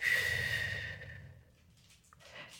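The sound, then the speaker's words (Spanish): A single slow, breathy exhale through lips shaped as if to whistle, part of a breathing exercise, fairly loud, carrying a faint whistle-like tone at first before tapering off into quiet breathing. “Es decir, cuando lo tiro, eh, coloco la boca como si fuera a silbar.”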